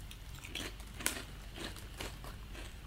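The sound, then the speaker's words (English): Crisp crunching of potato crisps being bitten and chewed while someone eats them, a series of sharp crackling bites repeating irregularly for a few seconds with no talking. “No, the best part is hearing your crunch, crunch, oh, oh, crunch.”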